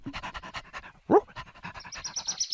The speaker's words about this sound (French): Le chien aboie. Il doit aboyer contre sa sœur.